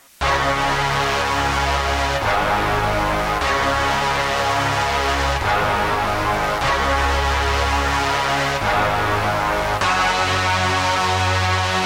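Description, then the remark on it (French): A punchy trap beat carried by a loud, sustained brass section playing chord stabs that shift every couple of seconds, over deep booming bass, with no voices. “et qui fait la force et là qui ramène un côté très trap, c'est la brasse.”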